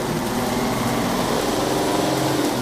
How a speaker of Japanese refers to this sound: タンクローリーが走りました